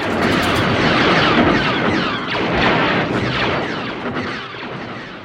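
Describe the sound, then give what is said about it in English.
A taut metal guy wire out in the middle of the desert, struck with a wrench and picked up by a contact microphone, gives a rapid barrage of loud, twangy blaster-like zaps, overlapping densely with metallic sweeping pitches, with no voices. “He found this great wire out in the middle of the desert and took a, a contact microphone out and put it on the wire and started hitting it with a wrench.”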